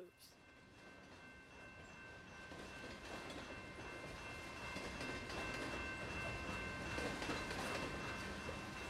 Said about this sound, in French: Beaucoup de trains passent par Kamloops, notamment des trains de cargaison qui transportent du charbon, du bois et des marchandises On attend les trains passer jour et nuit à Kamloops. Cela fait partie de notre paysage sonore quotidien.